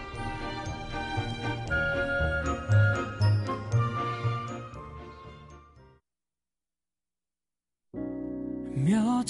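A bright pop song intro with chiming, bell-like tones over a steady rhythmic backing plays loudly on a radio program for about six seconds, cuts to silence for two seconds, then the music resumes.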